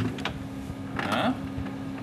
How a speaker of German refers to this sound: Ist das ein eine Eiswürfelmaschine ah. mit, pass auf, mit Funktion Crush Eis.